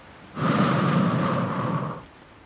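One long, breathy rush of air, fairly loud, steady for about a second and a half before fading out, as a woman from Altenburg takes a deep breath in, holds it in her chest and breathes out slowly. No one speaks.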